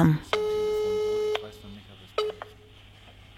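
A telephone ringback tone on an outgoing call to a man on holiday in Greece: one steady, buzzy electronic tone lasting about a second, followed later by a brief, fainter blip over quiet background noise.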